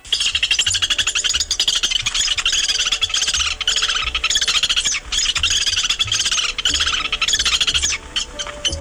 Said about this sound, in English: The bird is the Lewis's woodpecker. Here's its typical chattering sound.